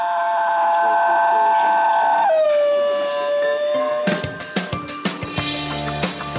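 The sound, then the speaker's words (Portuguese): A singing dog lets out a long, loud, tonal howl that holds steady and then slides down in pitch, followed by a run of sharp, rhythmic percussive bursts. “Eles têm esse nome porque têm um canto bem característico, descrito em um estudo como um uivo de lobo com tons de canto de baleia.”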